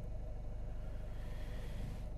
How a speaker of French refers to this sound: je, suis garé, je suis sur le parking, tu as dû remarquer au bruit du moteur, tu as dû entendre le frein à main.